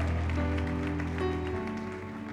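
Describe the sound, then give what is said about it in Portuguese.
A worshipping crowd claps and shouts to the Lord steadily under sustained keyboard chords, the applause forming a continuous wash for the whole two seconds. “Dê um brado ao Senhor e aplauda nesse lugar e adore.”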